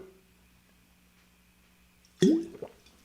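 After a long stretch of near silence with a low hum, a sudden wet slurp and gulp as a sip of water is taken, followed by a few small liquid swallowing sounds.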